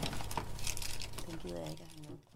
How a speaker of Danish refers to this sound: Jeg tager lige en vindhætte på den her, fordi Nå. der kommer lige lidt pust, og det skal der bare komme.